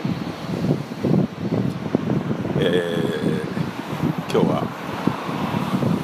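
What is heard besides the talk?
rain falling outdoors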